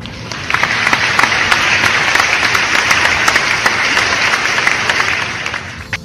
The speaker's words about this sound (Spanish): Ahí, acá es donde, donde si estuviésemos en el, estudio, tocaríamos el botón y suenan los aplausos, ¿no?